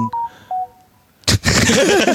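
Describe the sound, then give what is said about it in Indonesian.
Three short electronic mobile phone beeps sound in quick succession, clear, followed by a sudden burst of loud noise and overlapping chatter. “masih connect handphone lu.”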